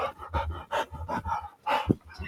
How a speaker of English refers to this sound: Calm down. These dogs are nuts. You guys need to calm down.